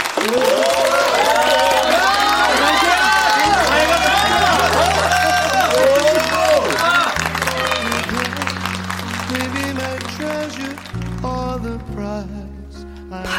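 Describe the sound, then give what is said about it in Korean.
A crowd of wedding guests claps steadily, with whoops and cheering voices, welcoming the bride's entrance at a wedding, over music carrying a slow, stepped bass line; the clapping thins out slightly toward the end. “모두 뜨거운 환영의 박수로 맞아주시기 바랍니다.”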